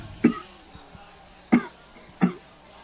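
A man coughs three times in short, separate bursts, heard faintly over a thin, muffled phone line with low background noise between coughs.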